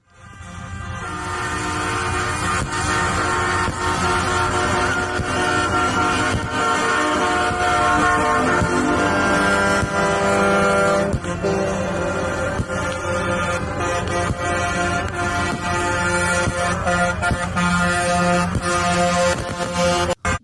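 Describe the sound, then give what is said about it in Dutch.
A loud, continuous din of many truck air horns blaring at once during a truckers' protest in Canada, overlapping long tones that swell and persist for the whole stretch with no pauses and no voices. “Ja, dat zijn heel wat vrachtwagens eh, te horen.”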